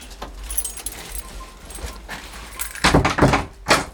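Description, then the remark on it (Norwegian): A door opens with a rattle of keys and handle clicks, followed by a few loud thumps and knocks as a woman steps inside; no one speaks. “Omtrent samtidig kommer hun inn døra også.”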